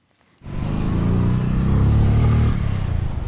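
After a brief quiet moment, a nearby motorcycle engine roars in loudly and keeps revving, its throaty rumble swelling and then easing slightly toward the end.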